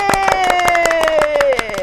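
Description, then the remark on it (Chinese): Applause of sharp, irregular claps for a sung Buddhist verse runs through the whole moment, mixed with a long sustained sung note that slides slowly downward in pitch before trailing off. “掌声鼓励鼓励。”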